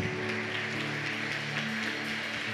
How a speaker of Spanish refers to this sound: Le damos un fuerte aplauso a Dios.